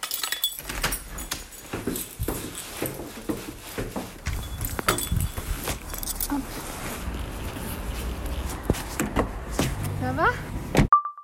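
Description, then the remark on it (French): Keys jangle and clink amid rustling and shuffling as belongings are gathered up (a binder, a mask, a phone and keys), with brief bumps and a zipper-like rasp, ending in a short high ding. “Classeur, masque, téléphone, clé.”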